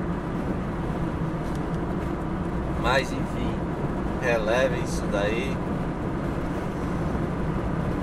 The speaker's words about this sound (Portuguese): Tá, aí tem que pôr um pouco mais longe, mas aí é, fica é, mais longe fica complicado, pega os sons do, do, do trânsito tal e tal e tal